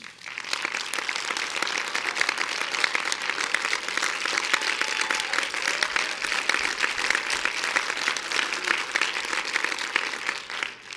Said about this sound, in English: Section two, are you ready? Clap your hand.